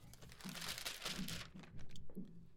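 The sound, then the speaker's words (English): Paper notes rustle and crinkle for a couple of seconds as they are handled, a busy, uneven scratchy texture as sheets are shuffled, with a faint low hum underneath and no clear talking. “I'm gonna have to read this off the paper.”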